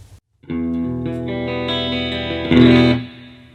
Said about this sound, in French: Ok, ça c'est une réverb, on va voir un peu ce qu'elle ce raconte en plus.